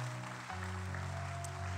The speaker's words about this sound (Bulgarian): О, тия хора, които пляскат от тази страна, те не знаят за какво проповядвам.